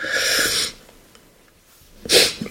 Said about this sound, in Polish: przepraszam. Kurde. Będzie, będzie słychać to smarkanie. No ale trudno.